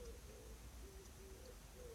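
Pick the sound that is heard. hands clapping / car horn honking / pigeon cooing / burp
pigeon cooing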